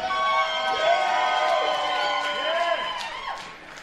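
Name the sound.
crowd cheering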